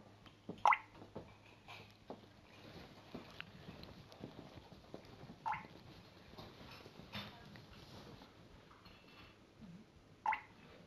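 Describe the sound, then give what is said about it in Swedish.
A water drop drips every five seconds: three clear plinks, each a sharp drip ringing over a faint, low background hum. “Det ni hör nu är en vattendroppe som droppar var femte sekund.”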